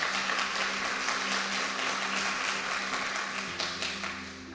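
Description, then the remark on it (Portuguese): An audience applauds in a dense, sustained wash of clapping for several seconds, with a low held keyboard tone underneath, easing slightly toward the end. “Aplauda ele mais uma vez.”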